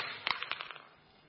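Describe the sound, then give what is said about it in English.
Two dice clatter onto a hard surface, a quick burst of sharp clicks and rattles that spaces out and fades as they settle, landing on a five and a four; fairly quiet with no talking. “And he chooses the rolling of dice.”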